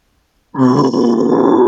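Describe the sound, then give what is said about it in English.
A person voices a loud, rough, sustained bear-like growl, starting abruptly after a half-second of silence and holding steady with a gravelly low rumble and strained harmonics. “So, can you be the bear down low, and then suddenly you get up, like you rear up on your two legs, and the owl comes out.”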